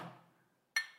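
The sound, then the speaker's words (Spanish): Glasses clink together in a toast: a first ringing tap fades out, then after a short pause a brighter, sharper clink rings out. No one speaks. “Salud. Ahí está grabando.”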